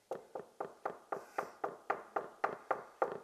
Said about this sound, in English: and he never stops knocking until you open the door. Never stops knocking until you open the door.